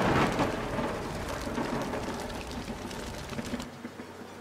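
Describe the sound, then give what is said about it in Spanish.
Heavy rain pours in a dense, steady hiss with scattered sharp drop hits, a deep thunder rumble swelling at the start, before the storm cuts off abruptly near the end. No one speaks. “Para su sorpresa, su casa estaba en un lugar desconocido, en medio de la nada y en medio de una gran tormenta.”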